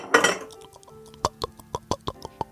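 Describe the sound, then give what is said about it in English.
Wine being poured into a glass: a short rustling burst, then a steady run of about eight quick glugging pulses with faint clinking tones. Nobody speaks. “Wine for all. Let's give you a pour.”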